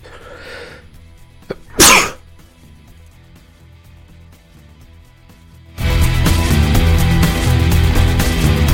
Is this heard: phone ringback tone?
no